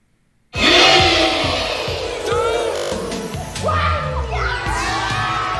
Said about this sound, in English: The joy of seeing a child open the boxes for the first time is just, it's incredible. There's squeals and screams, and they're so excited to see what's inside their boxes.